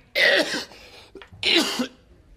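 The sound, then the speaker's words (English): A man coughs twice, loud, two harsh rasping bursts separated by a brief catch of breath, with no talking. “he answered, but he went on coughing, and his face got redder and redder”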